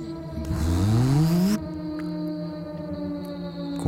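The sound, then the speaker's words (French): Vintage synthesizer oscillators glide steadily upward in pitch beneath a loud, hissing wash of noise shaped by a resonant filter, with low sounds behind, then settle into a sustained, buzzy electronic drone once the hiss cuts off. “qu'on fait monter en fréquence et puis il y a une espèce de bruit un peu sifflant résonnant avec un filtre résonnant derrière qui fait et puis des sons graves derrière”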